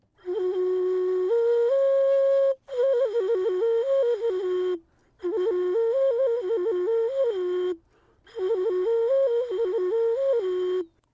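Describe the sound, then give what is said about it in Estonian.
A ceramic ocarina, a glazed and fired clay flute made by an Afghan artist for an art exhibition, plays a breathy, mid-pitched melody in four phrases separated by short pauses, with stepwise notes and quick warbling ornaments. It is fairly loud and plays alone with no voices. “niimoodi kõlab keraamiline flööt ehk okariina”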